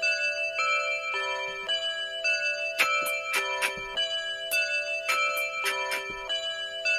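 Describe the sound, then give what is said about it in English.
Sustained, ringing bell tones hang throughout while sharp mechanical clock ticks sound in two quick bursts, like a clock tower chiming and ticking, steady in volume. “I work in a bell tower.”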